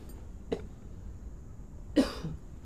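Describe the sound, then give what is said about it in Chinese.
Two coughs from a person who has been talking agitatedly: a short, soft one first, then after a pause a louder, harsher cough with a brief rasping tail, no talking around them. “哎呦你看我讲的多气，都开始咳嗽了。”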